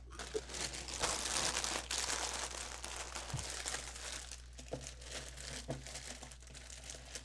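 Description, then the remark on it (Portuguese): Crunchy Sucrilhos breakfast cereal being eaten, a steady stream of crisp, crackling crunches that are loudest in the first seconds, then continue more softly with a few sharper bites. No one speaks. “Eu comendo sucrilhos está atrapalhando vocês? Dando ruído ou não?”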